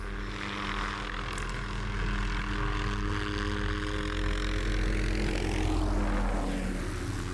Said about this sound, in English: Is this your helicopter coming? That's Dean's helicopter, actually.